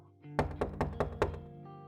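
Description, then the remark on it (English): Five soft, evenly spaced knocks on a wooden door in quick succession, with a low steady hum in the background and no voices. “He began slipping off his shirt and jeans when he heard a gentle knock on the door.”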